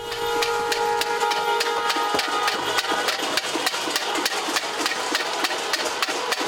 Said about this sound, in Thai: เสียงที่ได้ยินก็คือเสียงตีเกราะเคาะไม้ทุบหม้อทุบภาชนะทั้งหลายของชาวเมียนมานะครับในกิจกรรมที่สื่อก็เรียกว่าเป็น civil disobedience civil disobedience ก็คืออารยะขัดขืนนะครับหรือว่าเป็น non-violent resistance นะครับ